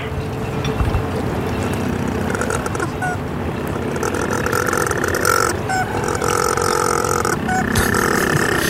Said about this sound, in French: On ne s'attend pas du tout à ce que ce soit des pingouins. Euh, je m'attendais à des, des piaillements, on dirait un tracteur.